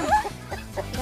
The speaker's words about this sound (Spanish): Gallina.